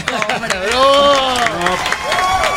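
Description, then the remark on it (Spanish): An audience claps steadily for a male guest being welcomed, while a loud voice cheers or calls out over the applause, energetic, lasting a couple of seconds. “Le voy a dar la más cordial bienvenida y quiero un aplauso fuerte para el señor.”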